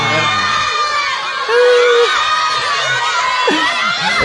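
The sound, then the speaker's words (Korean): A crowd of fans shouts and screams all at once in answer to a host asking which band member they like most, a dense, high-pitched wall of overlapping voices calling out names, mostly one member, swelling briefly with a few sustained shrieks before settling into continued chatter. “자 누가 제일 좋으세요 밴드 멤버 중에? 자큰 소리 한번.”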